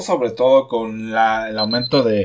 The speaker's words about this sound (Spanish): Eh, esa es mi alarma, perdón.